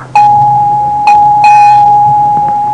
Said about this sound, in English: Dr. Waite winced as his bell signal sounded again.